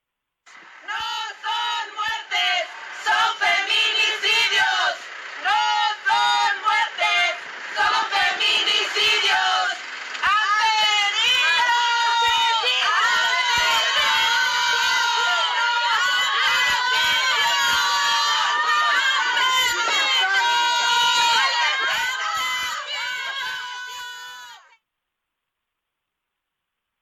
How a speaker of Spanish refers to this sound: y fue mientras las personas que aún se estaban manifestando con gritos y cartulinas que el acusado salió de la audiencia, desatando el enojo de los presentes que le gritaron asesino y exigieron que pague con una condena mayor.